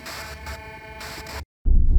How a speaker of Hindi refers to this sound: bed पर पड़े phone में शायद उसने एक डिस्टर्बिंग फ्रीक्वेंसी के बीच एक आवाज सुनी